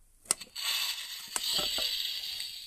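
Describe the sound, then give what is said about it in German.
A green-glowing Creeper-head toy lamp plays its creeper sound effect: a couple of sharp clicks, then a steady, fizzing hiss that runs on moderately loud, ending as an exploding creeper, with no voices. “Äh, meine Creeper-Lampe, die kann sogar Geräusche machen.”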